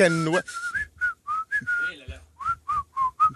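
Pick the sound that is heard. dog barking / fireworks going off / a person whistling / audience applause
a person whistling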